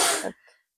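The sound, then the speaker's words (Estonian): A single sharp sneeze, fairly loud, a sudden noisy burst that cuts off quickly with a brief faint trailing breath afterward. “terviseks see olin mina terviseks.”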